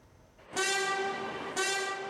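A train blasts its horn twice, loud, the second blast following the first after about a second over a low rumble of rail noise, with no one talking.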